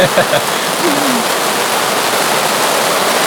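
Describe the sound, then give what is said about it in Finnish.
Heavy rain pours down in a dense, steady hiss, loud, holding an even roar throughout with no pauses. A faint brief murmur surfaces near the start. “ootas, nyt saattaa tulla, nyt tulee kaatamalla vettä, ootas tehdä.”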